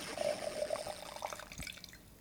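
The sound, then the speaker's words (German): Light-coloured beer pours into a glass with a short, steady liquid gurgle that rises in pitch as it fills, then fizzes and trickles off, fairly quiet with no voices. “Ich lege mich nicht fest, aber ich glaube, es waren irgendwie 7000 ja, einschenken.”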